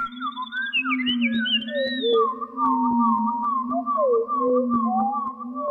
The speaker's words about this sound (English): We leave you this week with sonic variations on a bird song.